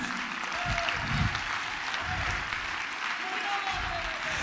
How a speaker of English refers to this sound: Oh, let's clap our hand, man.